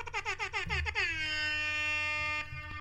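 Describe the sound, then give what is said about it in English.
A loud hip hop air horn blares in a rapid stuttering burst of about seven quick blasts, then holds as one long sustained blare before cutting off. “I think that every situation in life needs 400% more hip hop air horns.”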